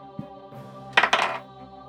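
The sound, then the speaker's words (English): Dice clatter across a hard tabletop in two quick rattling bursts, fairly crisp, settling within about half a second and landing on a four during a tabletop game. No one speaks. “Another four on the dice.”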